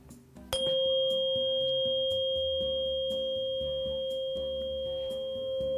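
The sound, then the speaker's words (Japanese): A tuning fork is struck once and rings with a steady, pure sustained tone that barely fades, while soft instrumental music plays quietly underneath. “はいこれ 528Hz の周波数の音差ですね”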